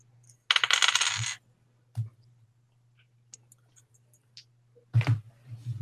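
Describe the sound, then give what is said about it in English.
Dice rolled for a stealth check in a game clatter across a hard tabletop in a burst of rattling clicks, followed by a few scattered taps and another short rolling clatter near the end, fairly loud. “oh, um, just so you know, uh, my stealth, I rolled a one.”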